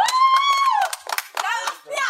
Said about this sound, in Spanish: Y tú no piensas aplaudir al compadre.